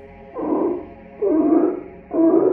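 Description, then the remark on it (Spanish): Three slow, deep pig grunts follow one another at a steady, unhurried pace, each rough and drawn out, fairly loud, with no talking. “El pasillo se inundó con los gruñidos pausados de un cerdo que poco a poco comenzó a aparecer de la oscuridad.”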